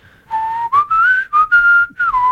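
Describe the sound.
A person whistles a short, catchy melodic hook mimicking a synthesizer line from a song's intro, several bright sliding phrases in quick succession, fairly loud, with no talking.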